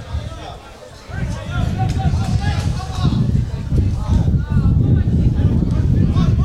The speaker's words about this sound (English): You can hear that wind howling.